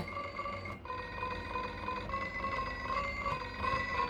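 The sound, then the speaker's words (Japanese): A steady electronic telephone ring, sound number 95 on a toy keyboard, a bright warbling tone that continues without pause, with a brief dip near the start, fairly loud, with no talking over it. “95おお電話来ちゃったよ早く取って早く取って電話取って早くあ切れちゃったいろんな音で電話が鳴る”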